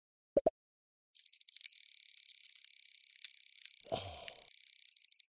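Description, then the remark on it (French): Two quick clicks, then a steady, high, purring buzz of mutant field crickets, whose wings produce a purring song, as described by researcher Robin Tingitella; it runs unbroken for about four seconds, with a brief lower rustle near the end. “Bientôt, sur vos écrans, le retour de la revanche des grillons ronronnants.”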